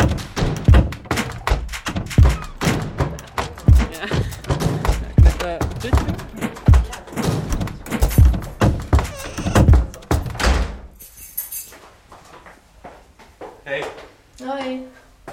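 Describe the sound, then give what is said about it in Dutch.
A door is opened and shut again and again, each close landing as a solid thunk amid busy clatter and voices, before things quiet down to a softer hush. “En we gaan de deur uit. En we gaan de deur weer in. En we gaan de deur uit. En weer in.”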